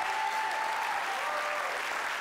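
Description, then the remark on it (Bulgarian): A church audience claps steadily during a sermon, a dense, continuous wash of many hands with no pauses, fairly loud and even throughout, with a faint tonal hum running beneath it. “О, ако ръкопляскаш, ръкопляскай, като че си навярваш.”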